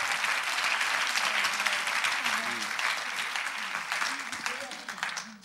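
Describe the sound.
Sustained audience applause, a dense crackle of many hands clapping steadily for several seconds, with faint voices murmuring underneath before it begins to thin out at the end.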